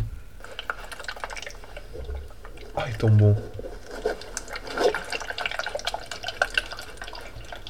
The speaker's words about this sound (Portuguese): Vou mostrar a água. Esta é com o curto bem. Curto bem quando eles abanam esta cena da água.